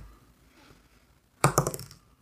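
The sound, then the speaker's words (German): A small six-sided die clatters across a hard tabletop in a quick burst of several sharp clicks that tumble and fade within about half a second, with quiet room tone before it. “Ähm, du kriegst einen Ruhm und würfel mal ein W6.”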